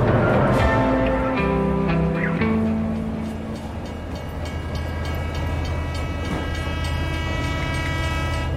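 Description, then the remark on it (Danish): A train rolls steadily along the rails with a continuous rumble and low mechanical drone. Some brief tonal notes sound near the start, then the ride settles into an even roar. “Joanne satte sig hver morgen i toget fra Manchester til London, hvor hun arbejdede.”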